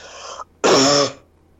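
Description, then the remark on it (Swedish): A short raspy cough in two bursts: a brief breathy rasp, a pause, then a louder, longer harsh throaty cough, alone with no talking. “alltså min mamma brukar eh, säga att, jag, att det låter konstigt när jag typ hostar.”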